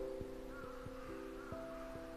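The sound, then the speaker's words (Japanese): A crow caws faintly, a few harsh calls drifting in from outside through an open window, over a steady low background hum with occasional soft knocks. “今さっき家に帰ってきて窓を開けて窓辺で話してるので今カラスの声が聞こえたかなと車の音”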